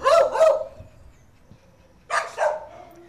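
Dogs barking at an animal rehabilitation centre in Vila Nova de Gaia, in two quick pairs of sharp woofs with a short pause between the bursts, loud, with faint kennel noise in the background.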